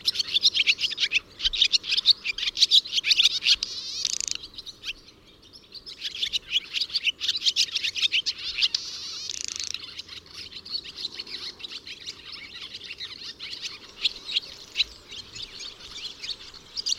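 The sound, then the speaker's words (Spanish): Shrill, high-pitched bird calls repeat rapidly and densely, mixed with harsher metallic notes, forming a continuous busy chatter with no one speaking. “Eso, un jolgorio, y no son muchas las que lo están haciendo, o sea que son mm son bastante llamativos, son chillidos muy agudos y luego esos más metálicos”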